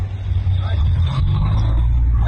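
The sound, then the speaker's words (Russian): A steady rumble of a long convoy of some 200 cars driving by in a continuous line through Stuttgart, Germany, with a deep engine drone and road noise that stays loud and unbroken throughout. “Вот еще немножко покажу, э, сколько машин.”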